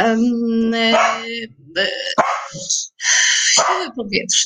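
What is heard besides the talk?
dog barking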